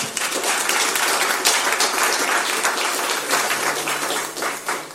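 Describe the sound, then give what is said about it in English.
An audience breaks into steady applause, a dense wash of many hands clapping at once that stays loud and even for the whole stretch, with no voices heard over it. “Just a round of applause for the wait.”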